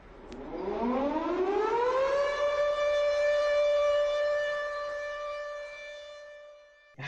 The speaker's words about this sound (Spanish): Después del sonido de la alarma no nos hacemos responsables por los daños mentales provocados.